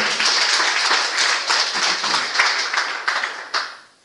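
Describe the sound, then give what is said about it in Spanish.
An audience claps together during a church service as an offering of applause to God, a dense, steady burst with a few sharper slaps standing out, lasting about four seconds before trailing off. “Ofrenda de palmas para Él.”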